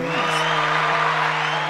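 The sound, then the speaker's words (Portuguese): A steady burst of crowd applause, dense and fairly loud, with a few faint whoops mixed in, holding at an even level for just under two seconds. “Palmas pra ele!”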